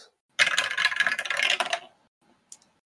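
A quick, dense clatter of dice tumbling across a hard tabletop during a tabletop role-playing game for about a second and a half, fairly loud, ending with one faint click as they settle on a roll of 7. No voices.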